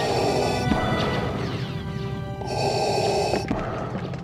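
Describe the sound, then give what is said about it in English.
Darth Vader's mechanical respirator breathing from Star Wars: a slow, heavy cycle of hissing inhales and exhales through a mask, steady, with a metallic, rasping edge and no voices. “And you also know what Darth Vader's breathing sounds like.”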